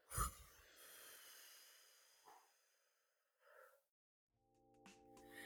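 A sharp, deep breath drawn into the belly and held briefly, then a long airy exhale through the mouth, followed by a few softer breathy puffs, quiet; a faint tonal hum enters near the end.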